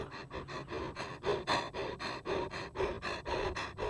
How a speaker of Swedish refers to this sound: Hunden flåsade högt igen.